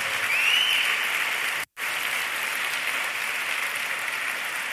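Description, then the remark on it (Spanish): Sustained applause from a large church crowd applauding the Lord, dense steady clapping that fills the whole clip, broken by a brief dropout near the middle before resuming at the same level. “Dar un aplauso al Señor, dar un aplauso a tu Padre.”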